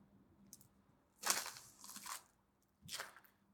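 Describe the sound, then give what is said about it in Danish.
Footsteps crunch through ice on frozen puddles at the lock at Sluseholmen: three brittle, crackling crunches at an uneven walking pace, fairly soft, with a faint low hum in the background. “træder på is på vandpytter her.”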